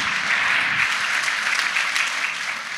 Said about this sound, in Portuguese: Alguém pode dar um glória a Deus? Alguém pode aplaudir ao Senhor Jesus? Aleluia! Glória a Jesus!